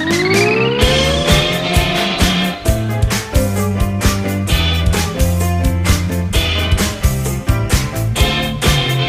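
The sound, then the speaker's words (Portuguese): A car engine revs up loudly and speeds off with squealing tires, followed by a steady, driving rhythmic beat with no talking. “o nosso carro é de plasma, vamos!”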